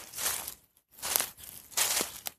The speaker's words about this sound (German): Gestört wurden sie jedoch durch ein Geräusch im Busch.